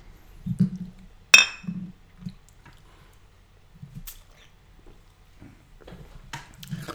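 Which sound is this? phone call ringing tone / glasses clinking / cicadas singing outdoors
glasses clinking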